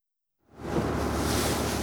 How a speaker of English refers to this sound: So now we're on the Thames cruise. That's right. It's part of our package. It's a really cool way to see London, and we'll see a lot more than we did on the water bus.